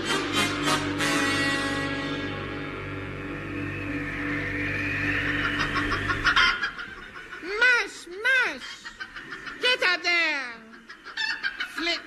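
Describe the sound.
Human voices do chicken impressions, a run of rising and falling squawking clucks in quick bursts, fairly loud, after a long sustained droning chord of held voices.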